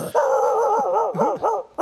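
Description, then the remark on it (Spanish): A person's voice imitates a large dog, giving a drawn-out, throaty bark-like cry that swoops in pitch with a few short breaks, loud, with no other talking. “Perro grande.”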